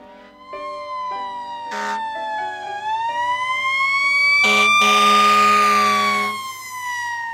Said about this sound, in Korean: 적진을 향해 진격하듯 사이렌과 함께 재난 현장으로 달려가는 이 사람은 소방관 가기역 씨입니다